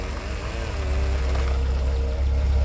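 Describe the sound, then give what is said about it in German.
A Gendarmerie police car's engine rumbles low and steady, idling with a slight wavering drone as it pulls up and stops on the street outside, growing a touch louder and staying on without any voices. “Auf der Straße draußen hielt ein Auto der Gendarmerie an.”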